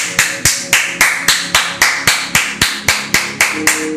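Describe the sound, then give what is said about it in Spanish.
Applause as a steady run of about fourteen sharp, bright hand claps, evenly spaced at a brisk even tempo, fairly loud with no voices over it. “Aplausos para ti.”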